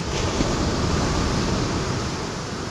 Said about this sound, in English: Looking out at the ocean, we might just see a chaos of waves and troughs.